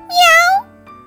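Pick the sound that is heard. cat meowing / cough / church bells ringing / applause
cat meowing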